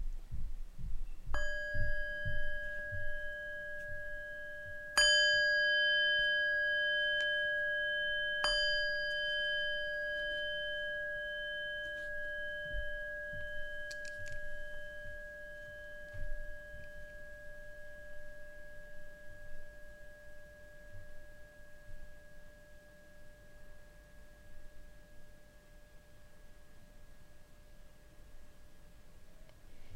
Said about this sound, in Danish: Velkommen til meditation. Sæt dig behageligt og følg lyden af klokken med hele din opmærksomhed, indtil du ikke kan høre den længere.